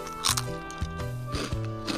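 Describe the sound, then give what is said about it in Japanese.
Several crisp crunches from someone biting and chewing a house-shaped senbei rice cracker seasoned with ramen soup, coming in irregular bursts over a steady, soft musical background. “まあ見た目は何だろうこれ家の形してますねいただきますんうんせんべいですねこれはあでも北方ラーメンなんだこれは”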